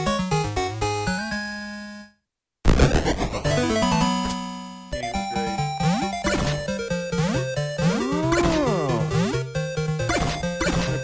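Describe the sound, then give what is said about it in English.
Busy retro 8-bit Famicom-style music from the game Robot Ninja Haggleman, with bright square-wave melodies, bouncy bass and rapid arpeggios, cutting out briefly before launching into a chaotic flurry of chirpy sound effects and pitch sweeps. “and uh, and you you unlock uh, Robot Ninja Haggleman, which yes. yeah sounds like this.”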